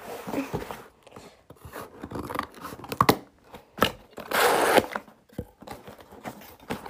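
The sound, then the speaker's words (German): Crisp snipping and tearing as scissors cut open the edge of a gift package, with irregular bursts of crinkling and scraping, including a louder sustained rip near the middle, and no talking. “Ich habe extra eine Schere geholt den Rand mal aufschneiden.”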